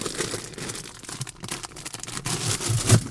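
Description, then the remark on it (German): A plastic candy bag crinkles and tears open, followed by 430 grams of sweets spilling inside a VW Touran, clattering and scattering in a rapid, irregular patter, fairly loud, with no voices. “Ma, 430 Gramm Bonbons verteilen sich im VW Turan.”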